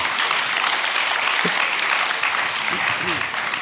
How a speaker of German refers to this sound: Ist ja eine Stimmung wie in Wolfsburg hier. Fürchterlich. Ne? Da wird so. aber geklatscht.